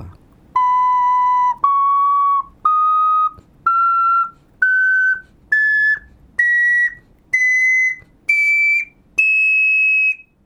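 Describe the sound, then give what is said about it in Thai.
A six-hole ocarina plays a rising do-re-mi scale of ten clear, sustained notes, each separated by a short breath and stepping steadily higher, loud with no talking. “ไล่สเกลโดเรมีฟานะ แล้วระหว่างที่ไล่เนี่ยครับคุณผู้ฟังผมก็ให้เด็กนับไปด้วยว่า โน้ตตัวนี้ตัวที่เท่าไหร่แล้ว อ่ะ คุณผู้ฟังก็นับไปพร้อมกับเด็กๆ เลยนะครับ ผมจะเป่าขุยโอคาริน่าให้ฟังแล้วนะครับว่าตอนนี้เนี่ยมันมี6รู”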